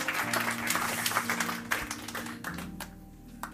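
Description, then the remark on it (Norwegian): A church audience at Pinsekirken applauds steadily during a morning service, many hands clapping in a dense, bright patter over a low sustained hum, then thinning out toward the end with a few scattered claps. “Skal vi gi dem en stor applaus?”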